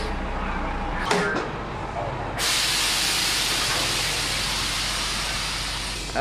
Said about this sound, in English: Here comes a bus right now. Should we? Let's go over there and take a look at it.